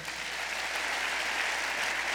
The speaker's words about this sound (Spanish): ¿Sabes que puedes dar un aplauso al Señor?